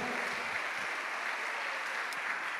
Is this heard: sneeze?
no